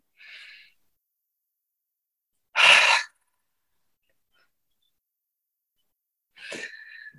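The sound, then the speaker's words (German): Three separate breath sounds with pauses between them: a soft airy puff, then a loud, sharp rush of air, then a breathy, slightly whistling breath, demonstrating a deep inhale through the nose and an exhale as if fogging a mirror. No talking. “Stellt euch vor, ihr haucht einen Spiegel an beim Ausatmen. Ich mache es mal einmal vor. Tief einatmen über die Nase.”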